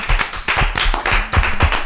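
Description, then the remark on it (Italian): An evening audience claps together in a steady burst of applause for KBL Gemma, who were absent, a dense, loud patter of many hands that continues throughout without any voices. “Ne approfitto per salutare KBL Gemma che stasera dovevano essere qua con noi, non ci sono e gli facciamo un applauso anzi a loro.”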